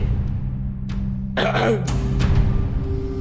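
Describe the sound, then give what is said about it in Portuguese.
A man's gruff throat clearing rasps out, a rough burst followed by a shorter catch, over a steady low background hum. “Ele dá uma pigarreada assim, com uma certa frequência, sabe?”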